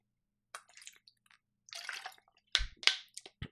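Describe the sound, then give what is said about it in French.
Someone sipping water: soft, wet slurping noises, then a few louder gulps and swallows with dull low thumps toward the end. No one speaks. “Je prends une gorgée d'eau.”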